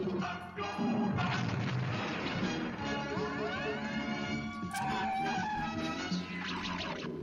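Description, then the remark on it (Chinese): A cartoon robot's transforming sound effect, from an animated series watched as a substitute for Transformers: a loud, busy stretch of clanking, crashing noise with rising electronic whooshes sweeping upward in pitch, running continuously for several seconds with no talking. “听听它变形的声儿。”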